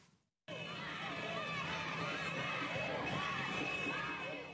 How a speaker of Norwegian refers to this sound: Jubel i gatene da de franske og maliske soldatene kjørte inn i Timbuktu, som de islamistiske opprørerne hadde forlatt for flere dager siden